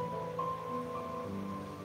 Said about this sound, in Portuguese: O barulho dessa cachoeira que está aqui atrás, o canto do passarinho,